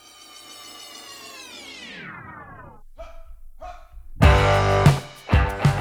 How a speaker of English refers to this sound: you might hear Sunny barking in the background if the mailman comes, because like all dogs